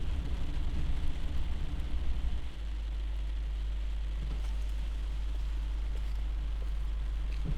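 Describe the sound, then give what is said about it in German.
A car engine idles steadily with a deep, constant rumble and broad background hiss during a police traffic stop just after a motorway on-ramp in Lower Saxony, Germany; the low drone shifts slightly partway through and then holds evenly. No one speaks. “Schalten Sie bitte Ihren Motor aus.”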